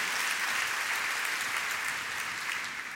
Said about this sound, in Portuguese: Dá uma salva de palmas ao Senhor, que Deus te abençoa, que Deus traz entendimento,